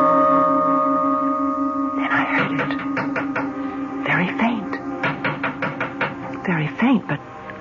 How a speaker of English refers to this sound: Someone tapping on the window pane.